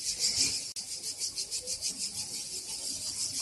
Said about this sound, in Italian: Ok, senti un po' le cicale, mamma mia.